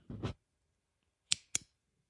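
A ballpoint pen clicks: a pair of duller clicks, a brief pause, then two crisp, sharp snaps in quick succession, with no talking.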